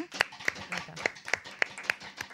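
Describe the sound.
Hand clapping by an audience asked to clap along, in a steady, even rhythm: about seven sharp, crisp claps in quick succession, with a soft murmur of voices underneath.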